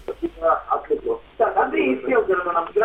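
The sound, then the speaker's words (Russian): Thin, band-limited speech over a phone line from a caller in Belgorod, with an echo caused by the caller's radio receiver being on, the voice returning slightly delayed so overlapping copies of the talk smear together, especially in the second half. “пожалуйста, приемник выключи, да, а то вот у нас эхо идет.”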